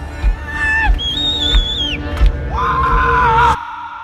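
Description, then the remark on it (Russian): A man screams loudly in a strained voice that cracks, jumping abruptly to a shrill high pitch and then dropping lower, over a rumbling noisy background before cutting off sharply, at the end of an evening at a concert in Genoa, Italy. “Да-да, это я так там петуха дал.”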